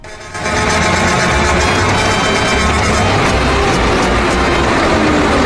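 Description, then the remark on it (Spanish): A loud, sustained car horn blast, played as the game's horn on a Radio La Dueña Oriente 102.7 FM broadcast, kicks in abruptly and holds steady for about five seconds, its buzzy harmonic tone mixed with a noisy, rumbling wash and no voices. “vamos con el respectivo bocinazo del juego.”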